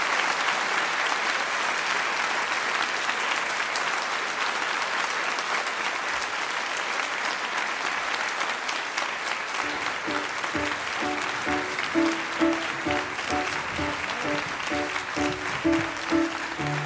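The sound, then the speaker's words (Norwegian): A sustained round of audience applause, dense and steady throughout, with music starting up underneath it about halfway through while the clapping carries on. “Gi dere en eh, applaus.”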